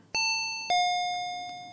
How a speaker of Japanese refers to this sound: このインターホンの主のことをすぐに察することができた。